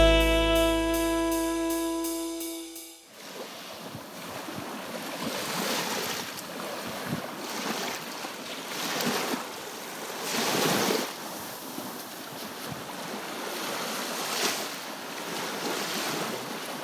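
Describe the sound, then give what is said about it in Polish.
After a few seconds of sustained musical tones, Baltic Sea waves murmur in a steady, hissing wash, with soft surges swelling and receding every couple of seconds; no voices. “to nasz y, Bałtyk tak szumi.”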